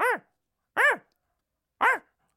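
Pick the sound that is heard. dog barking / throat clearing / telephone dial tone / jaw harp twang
dog barking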